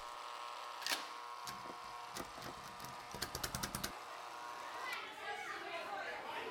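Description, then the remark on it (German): Children playing outdoors, with chatter and a lively, busy background; a quick run of sharp knocks or clatters stands out in the middle before the scene settles back to steady ambient noise. “Kinder, kommt rein ins Haus jetzt. Hört auf zum Spülen”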